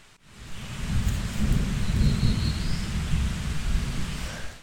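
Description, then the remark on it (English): A deep, ominous rumble of thunder heard in a forest rolls on steadily for several seconds, low and heavy, swelling in after a brief quiet start and never fully fading, with a faint high chirp above it. “Man, that thunder is ominous.”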